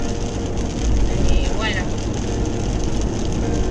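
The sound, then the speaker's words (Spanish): A steady low engine rumble fills the cabin of a moving car, constant and fairly loud, with a person speaking briefly over the drone. “¿Cómo se llama este auto? ¿Berlingo?”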